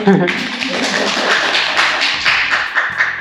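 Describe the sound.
A burst of steady clapping fills the whole stretch, brisk and fairly loud, with sharp repeated claps blending into a continuous patter, and voices murmuring faintly underneath.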